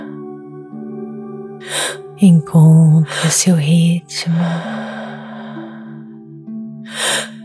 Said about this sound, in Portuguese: Inspire, inspire e expire, inspire, inspire expire, inspire, inspire expire, inspire, inspire expire.